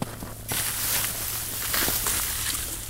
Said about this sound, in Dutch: En het geluid van sneeuw dat op sneeuw valt.